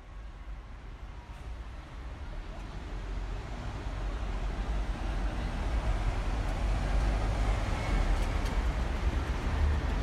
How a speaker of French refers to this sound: Le bruit des voitures réapparaissait petit à petit. Les rues se remplissaient, signalant la fin.